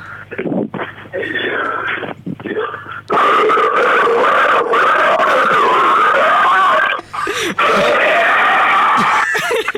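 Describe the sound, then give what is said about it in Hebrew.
A person makes loud, sustained guttural growls and gurgles with the voice, without any effects, imitating churning pig stomach juices. The noise rumbles on almost nonstop, with brief breaks, raw. “יש מיצי קיבה של חזיר.”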